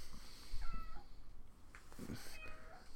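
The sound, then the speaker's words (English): A cat meows twice, a short call near the start and a longer, rising-and-falling meow about a second and a half later, over a low steady background hum. “Hi, kitty.”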